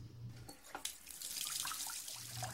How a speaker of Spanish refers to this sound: Abrió el grifo del agua caliente.